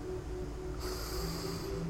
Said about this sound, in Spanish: Haré respiración para aportar vida y conciencia.